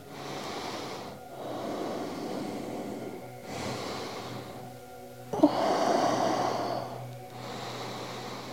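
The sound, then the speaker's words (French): Slow, deep breaths drawn in and let out, several full cycles in a steady rhythm, clear against a quiet background with no talking, during a stretching exercise with the arms reaching up overhead. “Respiration profonde.”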